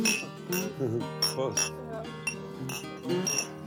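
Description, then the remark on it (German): Glasses clink together in a toast, with several bright ringing taps spread across the moment, heard over the murmur of people talking. “Stoßen wir nochmal an”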